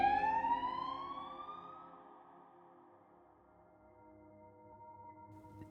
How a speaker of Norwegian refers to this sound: så jeg går, tilbake, jeg går tilbake til vinduet, og så ser jeg at det er sånn 16 politibiler og alt mulig rart. Sirener overalt, masse politi som skriker.